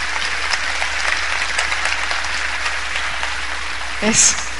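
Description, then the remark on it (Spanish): Steady, dense audience applause for a couple called up on stage to help the speaker fills the whole stretch, a continuous crackle of many hands clapping, with a brief louder swell and a short voice or whoop near the end. “a ver, vamos a darles un aplauso.”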